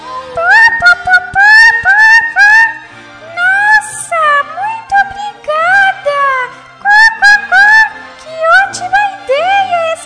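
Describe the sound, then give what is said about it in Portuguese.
A hen clucks and cackles over and over, a loud run of short rising and falling calls that keeps going with only brief pauses. “E então poderemos formar uma banda de música. Que acha disso, amiga galinha?”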